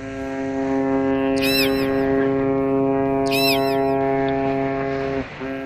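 A steady, continuous low rumble of a ship's propeller and hull, layered with droning tonal hums throughout, briefly broken by two short bursts of higher chirping sounds.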